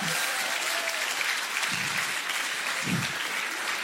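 An audience claps steadily throughout, a dense, even wash of many hands with no pauses, while a few brief murmurs of voices rise faintly within the applause.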